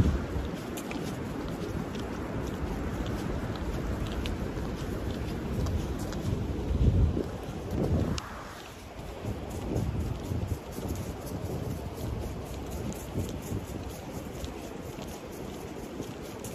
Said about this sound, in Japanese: 東一郎君が霜の上を歩く音と川の音が聞こえるんじゃないかな。